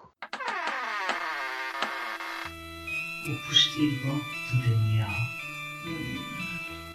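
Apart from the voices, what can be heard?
mosquito buzzing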